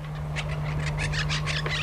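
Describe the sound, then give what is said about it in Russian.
Monk parakeets, also called quaker parrots, a South American species, squawk in Madrid, Spain, in a rapid, harsh series of about ten shrill calls, loud, over a steady low hum with no voices. “Квакер, калита, монах. Так называется порода этого попугая.”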